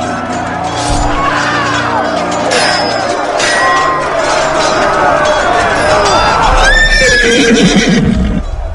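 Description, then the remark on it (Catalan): A horse whinnies loudly and shrilly amid a busy, clattering scene, with galloping hooves and a crowd of voices in the background; a second high neigh rises near the end. “Heu perdut un cavall.”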